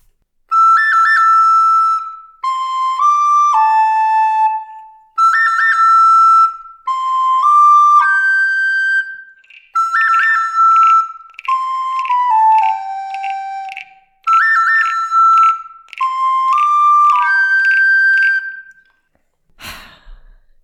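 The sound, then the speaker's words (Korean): A recorder plays a whooping, rising-and-falling howl motif imitating a coyote's cry from the soundtrack of the film The Good, the Bad and the Ugly, repeated in four bright phrases with short pauses, no talking, ending with a sharp click. “근데 저는 이 코요테 소리 나오는 이 석양의 무법자 사운드 트랙은 가능할 거라고 생각을 안 했는데 너무 대단합니다.”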